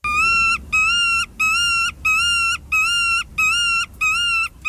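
A bird calls loudly in a steady series of about seven short, clear, tonal notes, evenly spaced with brief gaps, with no voices.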